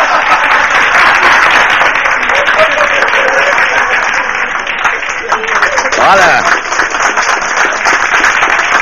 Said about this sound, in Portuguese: Olha as palmas, hein, pô. Essas palmas, é, essas palmas incentivam, hein, porra.